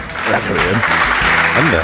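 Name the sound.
spontaneous audience applause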